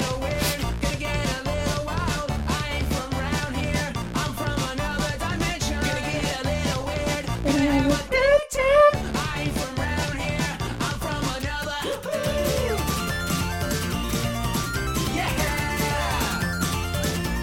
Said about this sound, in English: Here is the Star vs. the Force of Evil theme song.